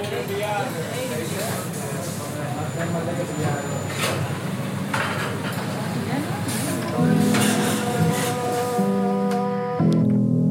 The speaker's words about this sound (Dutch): Wanneer de operatiesetjes klaar zijn, gaan ze in een van de vijf autoclaven. Die steriliseren alles met stoom, onder hele hoge druk. Ja, dit lijkt een geluid wat je nu hoort van een autoclaaf die draait. Dus de sterilisator die